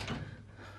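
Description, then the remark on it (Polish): A door is pushed against resistance, blocked by something on the other side, giving a short, dull rattling thud, then a low steady rumble as it stays stuck. No one speaks. “Nie mogę otwor otworzyć drzwi. Coś się blokuje z tamtej strony.”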